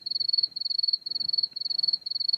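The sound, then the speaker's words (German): A steady, high-pitched cricket trill pulses in rapid, rhythmic bursts with brief pauses between phrases, clear over a faint low background hum, with no voices. “Was piept denn hier? Das die waren, Grillen? Sind das, das die waren Grillen, die Zirpen?”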